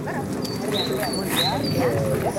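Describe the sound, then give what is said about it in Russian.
A guide dog makes brief whimpering, yipping sounds amid a busy outdoor crowd at a celebration where instructors demonstrate guide dog training, with people talking in the background throughout. “Сейчас инструктора со своими питомцами э, продемонстрируют вам то, что они умеют, то, чему мы обучаем наших питомцев с помощью людям, потерявшим зрение.”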